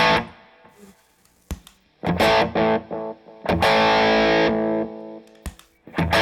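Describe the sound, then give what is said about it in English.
Distorted electric guitar chords ring out through a delay pedal, each loud strum followed by repeating echoes that trail off, with sharp muted picks between the sustained bursts. No one speaks. “Its party piece to me is that it works so well in front of a distorted amp.”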